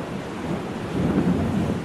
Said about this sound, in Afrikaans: Een aand is daar 'n woeste storm. Die wind loei en dit reën hard.